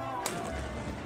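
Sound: iftar cannon firing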